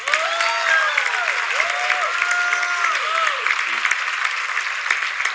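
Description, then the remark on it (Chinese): Steady audience applause fills the whole stretch, a dense wash of clapping with some cheering or whistles rising above it, loud and continuous without pause. “哎，掌声一下啦！”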